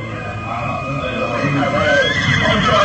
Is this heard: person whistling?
no